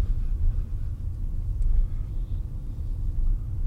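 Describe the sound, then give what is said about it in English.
Steady low road rumble from inside a moving car, a continuous deep drone with slight swells in loudness and no voices, filling the whole stretch. “As ever, some of the story unfolds as we chew it over in the car.”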